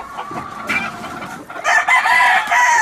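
A rooster crows, loud and strained: a short rising call, then a long sustained cock-a-doodle-doo that fills the last second, with no one talking.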